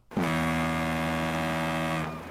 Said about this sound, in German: Ja, wir machen, die Hupe, wir machen die Hupe einmal an. Ja.